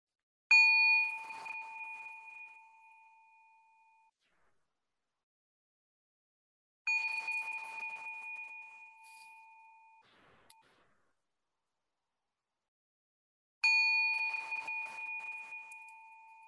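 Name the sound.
meditation bell ringing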